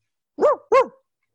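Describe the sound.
A person imitates a dog with two quick, loud barks in a row, alone, with a short gap between them and silence after.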